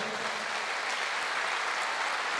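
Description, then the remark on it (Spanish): Steady, dense applause from a church audience clapping for the Lord, a continuous crackling wash of many hands clapping at even loudness with no individual claps standing out and no talking over it. “Ahora sí, dele fuerte ese aplauso al Señor.”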